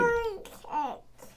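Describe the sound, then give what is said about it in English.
A toddler fusses and babbles in short, whiny vocal bursts with rising and falling pitch, moderately loud, with no adult talking over it. “somebody wants to have a meltdown.”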